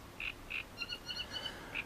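A great reed warbler sings a harsh, croaking phrase: two grating notes, then a quicker run of higher, chattering chirps and one more rasping note, fairly quiet, with no voices.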